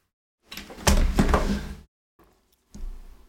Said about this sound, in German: Das schneide ich natürlich raus, aber ich war jetzt so eine Minute auch nur weg, habe immer alle Türen und Fenster zugemacht. Ähm, Balkontür war auch total weit auf und ja, anscheinend zieht hier gerade ein Unwetter auf.